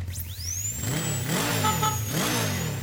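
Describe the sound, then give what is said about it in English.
A motorcycle engine revs up loudly, its pitch rising and falling in two surging throttle blips over a steady idle rumble, with a thin high whine above. “When you love riding a motorcycle, you want to ride it everywhere, even getting a dental checkup.”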